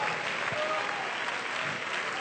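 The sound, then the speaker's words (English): An audience claps hands together in a dense, steady wash of applause that holds at an even loudness for a couple of seconds, with no talking over it. “Come on and clap your hands if you believe God is superior to all spiritual hindrances in your life.”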